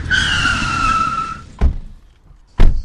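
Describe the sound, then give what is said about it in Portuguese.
A car pulls up and parks at the door of a sports science laboratory in Lisbon with a sustained, high-pitched tire squeal lasting over a second, followed by two sharp thuds like car doors shutting, with no talking. “Sabia que conseguia estacionar o carro aqui perto, mas não exatamente aonde.”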